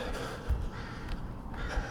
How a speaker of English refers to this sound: Come on here and record those crows there. Put them on a song.